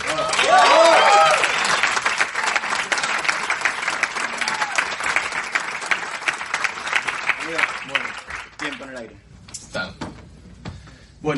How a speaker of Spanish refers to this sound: Fuerte el aplauso